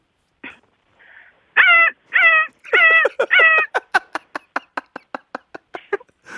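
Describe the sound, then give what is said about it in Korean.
A voice imitates the seagulls of Sorae Port (Soraepogu), which cry from the throat, with throaty, strained cries: a few drawn-out wails, then a rapid run of about a dozen short, clipped calls, loud with no talking. “자, 소래포구에 있는 갈매기들은 목으로 예, 운다고 합니다.”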